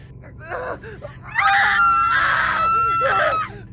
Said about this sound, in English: … and I started screaming, almost in unison and about in the same tune